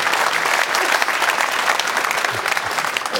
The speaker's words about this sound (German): unser Publikum hat gedacht, jetzt reicht es doch irgendwann mal mit Applaudieren.